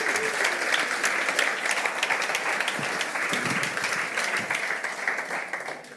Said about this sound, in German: Hey, können wir den Applaus geben? Okay, danke dir.